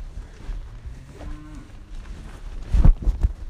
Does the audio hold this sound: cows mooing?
yes